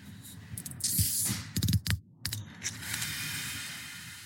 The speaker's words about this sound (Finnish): Tässä on tällainen niin metallinen, vähän niin kuin gambiinapullon korkki, josta luultavasti tulee oikein niin kuin tyydyttävä raksahdus kuunnella